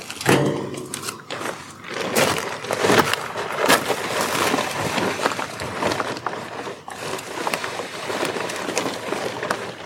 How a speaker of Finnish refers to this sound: sahaa noit, kun on noit palkkeja vielä. Niin, voidaan me sahata vielä, jos me otetaan vielä viimeinen nuotio.